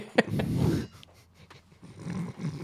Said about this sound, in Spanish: Perro.